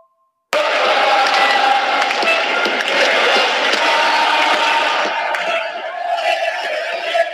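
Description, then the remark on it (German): A huge football stadium crowd, heard from the stands during a match, roars and chants continuously after a sudden start, a dense wall of voices with cheering peaks, easing slightly toward the end but staying loud throughout. “Mittlerweile bin ich auf der Tribüne. Ich muss hier ein bisschen aufpassen, ich kann aber das ganze Spiel sein. Ihr hört ja, was hier los ist.”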